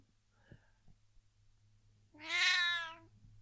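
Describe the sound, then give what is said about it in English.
A single loud, drawn-out meow from an old female cat that has just woken up next to the speaker, close by and lasting about a second, rising out of near-quiet with only a few faint soft noises and a low hum before it. “Cat woke up next to me.”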